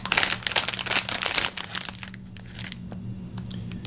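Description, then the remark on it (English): A crinkly bag of Takis wave chips being torn open, with a burst of loud, rapid plastic crackling and rustling for about a second and a half, then quieter scattered crinkles and a low steady hum underneath. “All right, so let's open up, see what's inside.”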